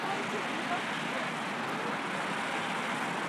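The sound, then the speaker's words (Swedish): A steady, continuous roar of city traffic in Stockholm, picked up by a held-up microphone, a dense wash of engine and road noise with no distinct passing vehicles standing out and no voices. “Om jag kan få in ljudet från trafiken här om jag håller upp mikrofonen.”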